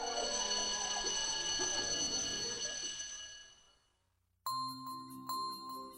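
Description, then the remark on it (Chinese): A school bell rings loudly and steadily for a few seconds to mark the end of class, then stops; after a short silence, a brighter chime-like ding sounds twice with a lingering tone. “艾米走到黑板前面，蹲下，开始擦水，一直擦到下课铃响起来。”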